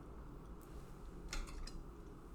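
A fork is hit against someone's plate at dinner: one faint clink, then a quick cluster of three or four light metallic clinks, quiet over a low room hum, with no talking.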